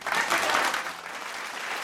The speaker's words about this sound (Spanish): Qué buenas son las cápsulas de los reporteros pasquirigen, muchachos. Y el día de hoy realmente fue muy buenas, todas. Eh, aplausos.